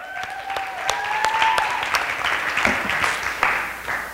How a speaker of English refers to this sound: Hey, amen. one more round of applause to Dr. Mark.